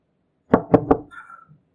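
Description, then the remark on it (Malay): Three firm knocks on a door in quick, even succession, loud, followed by a brief faint rustle and a soft thud. “Malam-malam dia ketuk pintu.”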